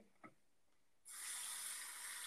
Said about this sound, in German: Ich habe irgendwie Durst. Ich glaube, ich trinke ein bisschen Wasser. Ich mache mir kurz Wasser in ein Glas, weil ich extrem Durst habe.